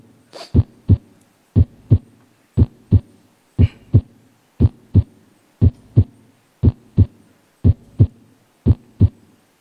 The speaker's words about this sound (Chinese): 这样的一个工作，大家先听听这个正常的心心脏的声音是什么样的。